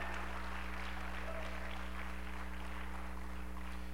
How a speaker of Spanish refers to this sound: Alguien puede hacer ruido, alguien puede aplaudir de verdad, alguien puede chiflar, alguien puede puede gritar, aleluya.